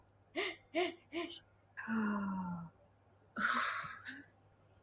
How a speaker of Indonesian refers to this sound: Terus hmm. ambil tiga tarikan nafas yang panjang.